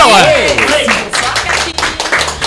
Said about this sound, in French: Vous êtes en train d'applaudir.